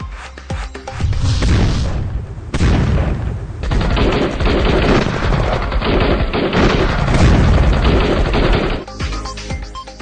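Bursts of gunfire crack repeatedly in loud, rapid volleys with brief lulls between, echoing sharply for the whole stretch; no one speaks. Intermittent firing during a commando operation against attacking terrorists at the PNS Mehran naval air base in Karachi, Pakistan.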